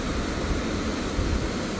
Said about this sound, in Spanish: Estoy aquí en, el río Dos Bocas en Ciales, el cual se une el río Matrulla con el río Toro Negro.